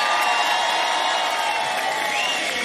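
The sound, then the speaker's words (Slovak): A large crowd in Kovačica cheers and applauds steadily, a dense roar of clapping and shouts that stays loud and even throughout, with scattered whoops rising above the wash of noise. “Vyšetrite aplauzom, podstatne väčší potlek sme čakali. Kovačica teraz!”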